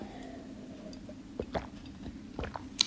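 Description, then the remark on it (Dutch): Someone takes a sip of water: a few soft, wet mouth clicks and a quiet swallow over a low background hum, with no talking. “Terwijl ik even een slokje water pak”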